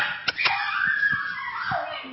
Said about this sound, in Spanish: Bueno, voy a seguir un poquito me perdonan por favor por los ladridos de Luna